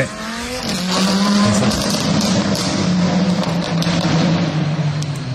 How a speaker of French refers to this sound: Elle se filmait en allant oh, rincer son moteur.